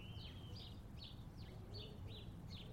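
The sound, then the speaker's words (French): Small garden birds chirp in a quick, repeating series of bright, high notes over a steady low rumble of background noise. “Une chose est sûre, ce sont tous ces oiseaux qui enchantent nos jardins et les rendent on ne peut plus paisibles.”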